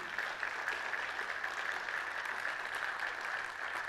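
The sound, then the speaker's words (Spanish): A church audience applauds a family standing up, many hands clapping in a dense, steady wash of sound that holds at an even level for about four seconds without anyone speaking. “Démosle un aplauso, ¿sí?”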